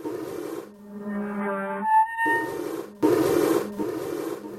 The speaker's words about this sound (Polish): coś mi tutaj za oknem drapie. Ktoś chce wejść.